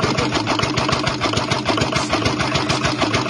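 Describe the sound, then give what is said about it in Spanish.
A car engine idles, running rough with a fast, uneven mechanical clatter and steady low rumble throughout, with no voices; the car is said to need a new engine. “¿Cuál es el problema que tiene este carro? Escucha todos los sonidos que está haciendo.”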